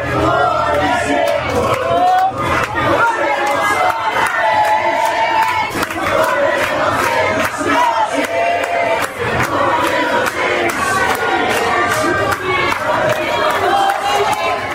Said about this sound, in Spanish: Caos, alegría, rabia eufórica. Los argentinos se desgarran las gargantas gritando gol y la cerveza llueve desde el segundo piso del salón principal.